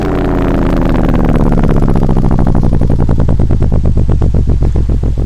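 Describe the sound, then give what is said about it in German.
A boat engine is switched off after the boat has docked in a harbor: its loud chugging rumble slows, the regular firing beats spacing out as it winds down. No one speaks. “Jetzt schalte ich den Motor aus.”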